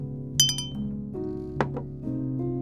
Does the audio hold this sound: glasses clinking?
yes